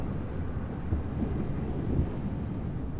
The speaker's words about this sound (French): Ça fait un espèce de roulement continu avec des vagues qui éclatent. Alors ce sont des petites vagues, hein. ça, monte à 50 cm. Mais euh, il y a assez de force et de retenue par le vent qui, va contre la vague